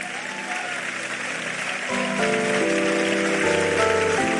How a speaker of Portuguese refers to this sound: Vamos aplaudir ele aí.